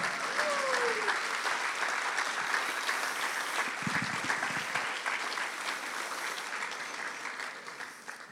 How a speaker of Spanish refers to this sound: ¿Cuántos pueden darle un aplauso a Cristo Jesús?